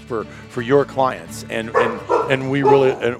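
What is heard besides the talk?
dog barking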